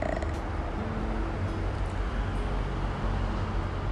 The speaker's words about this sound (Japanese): あら今日はずいぶん大きな自動車が通っていますね